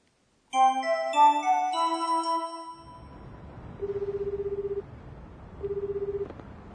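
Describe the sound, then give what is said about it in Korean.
A quick series of bright electronic dialing tones, then a line hiss with two long, buzzing ring tones separated by a pause, heard clearly with no one talking, as a student lost after leaving a bookstore phones a friend for help. “당황한 안나는 전화로 사쿠라에게 도움을 청합니다.”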